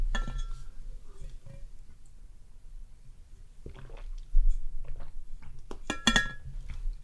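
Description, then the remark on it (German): A glass clinks a few times, with soft wet mouth sounds of sipping and swallowing water in between. The sounds are brief and fairly quiet, and no one speaks. “Nimm dir ruhig ein bisschen Zeit, ich nehme dir einen Schluck Wasser”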